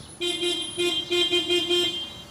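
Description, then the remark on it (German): The horn of a mobile bakery van making its weekly round through the streets of Nürnberg-Buchenbühl, Germany, around midday, honks in a quick rhythmic series of about seven short, bright toots, loud, with no one speaking. “Dann fährt der mobile Bäcker seine Runde, hat Brötchen, Brote, Nussschnecken, Brezen, Kuchen und Torten im Laderaum dabei.”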